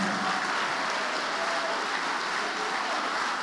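A church audience applauds the name of Jesus in a steady, dense wash of clapping that holds at an even, fairly loud level for the whole stretch, with no voices standing out above it.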